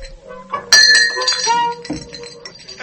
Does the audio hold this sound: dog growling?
no